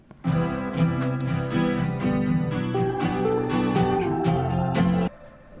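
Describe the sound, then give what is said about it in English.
A singer's pop song plays loudly and steadily, with layered harmonic instruments, a sustained bass line and regular percussive hits, then cuts off abruptly near the end. “we're going to play the … … for off the cuffs song of the week”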